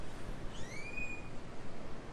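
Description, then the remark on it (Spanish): A single rising, whistled bird call rings out clearly for about half a second over a steady background of low rumbling noise, with no voices. “hay un pájaro, ¿lo, ¿lo viste? Hay un pájaro.”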